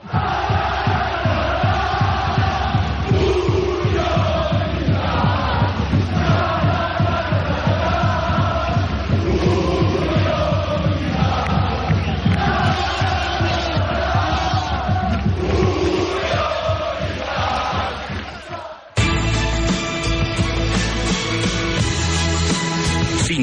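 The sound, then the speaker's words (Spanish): A loud crowd of football fans cheers and chants in unison, their celebration carried by a steady rhythmic pulse, before it cuts abruptly to a short burst of music. “Así lo celebraba la afición.”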